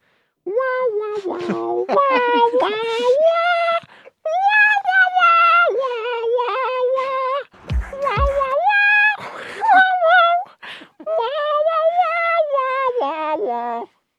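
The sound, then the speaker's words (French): A voice imitates a distorted wah-wah electric guitar by mouth, with sustained buzzy, nasal tones sweeping up and down in pitch across several phrases, loud, with brief pauses between riffs. “mais à la bouche, donc euh, je vais le faire parce que je ne sais pas jouer de guitare.”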